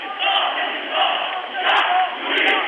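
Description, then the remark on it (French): A crowd of 300 to 400 protesters in Cairo, Egypt, chants slogans in unison, loud, the rhythmic shouting swelling in waves about once a second with a few sharper cries cutting through. “Place Salatard, 300 à 400 personnes se regroupent et commencent à scander des slogans.”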